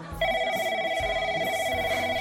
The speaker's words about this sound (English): And I'd kill for someone to answer the phone. Please?